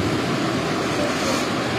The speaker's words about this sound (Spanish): Aquí están las olas que está formando. Vienen para acá, para conmigo.